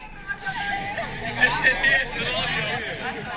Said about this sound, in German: Ja, man hört auf jeden Fall. man hört auf jeden Fall, dass ich auf einem Open Air gelandet bin.